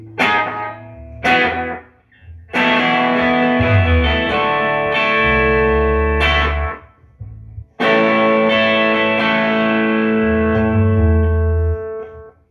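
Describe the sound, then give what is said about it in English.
An electric guitar plays loud, bright chords with a quick slapback echo, several strummed hits that ring out and sustain, ending on a long held chord, with no talking. “Just a quick slap.”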